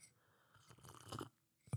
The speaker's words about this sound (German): Trinke deinen Tee, heute schlürfst du. heute schlürfst du, schlürfst du.